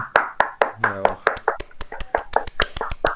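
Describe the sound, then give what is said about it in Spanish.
Brief applause welcoming a guest, sharp, loud claps in a slightly uneven rhythm, sounding like just a few people clapping, with a short burst of voice in the middle. “Un aplauso.”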